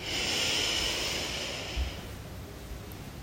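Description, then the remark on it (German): A single long, deep inhalation during guided breathing, a soft airy rush that swells and then tapers off over about two seconds, unaccompanied by speech. “Jetzt wollen wir wieder tief ein- und ausatmen und Anspannung abfallen lassen. Wir atmen tief ein”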